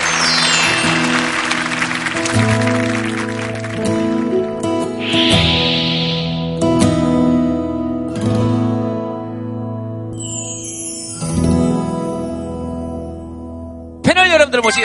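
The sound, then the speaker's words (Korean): A burst of audience applause for children at the start, loud and dense, fades out after a couple of seconds as sustained musical tones carry on underneath and continue alone. “우리 아이들에게 여러분 박수 한번 부탁드리겠습니다.”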